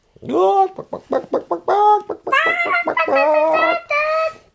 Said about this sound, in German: Die Hühner kreischten laut und rannten wild flatternd los.